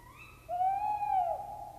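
A tawny owl gives a single long, hollow hoot, steady and slightly wavering before dipping at the end, sounding alone over a quiet background with no voices.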